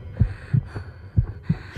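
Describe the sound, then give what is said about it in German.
A woman's heart pounds wildly in her chest despite a tablet she has taken. The rapid heartbeat thumps in low, muffled pulses, several beats in quick succession over a soft steady hum, with no voices present. “Obwohl sie schon eine Tablette genommen hat, hört es nicht auf, wie verrückt in ihrer Brust zu klopfen.”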